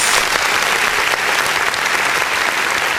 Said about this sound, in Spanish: Aplausos.